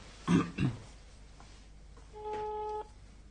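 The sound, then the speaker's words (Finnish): A single steady electronic ringback tone plays over a speakerphone for under a second, slightly tinny and moderately loud, after two short low grunts near the start. “mä, mä voin soittaa sille ja kysyä, ja pidetään puhelimen”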